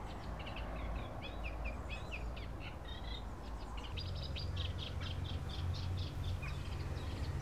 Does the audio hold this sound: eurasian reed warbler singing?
yes